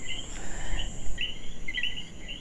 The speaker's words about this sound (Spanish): Con los coquis encendidos. Ya ustedes saben, haciendo de la suya. Entonces, esa chicharra, esos coquis. esos grillos, todo se mete en mi grabación.